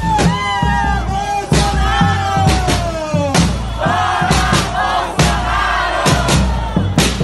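A loud street protest crowd shouts and chants continuously, with overlapping voices, sharp bursts of noise and strident rising yells over a dense roar.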